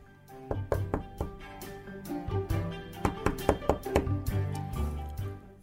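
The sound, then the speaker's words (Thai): A series of sharp knocks on the wooden door of the seven dwarfs' house, made by the queen disguised as an old woman. The knocks come in quick irregular clusters over a low, steady tonal background, clear with no voices. “ตรงไปที่บ้านของคนแคระทั้งเจ็ด พอไปถึงก็เคาะที่ประตูแล้วก็ร้องเรียก”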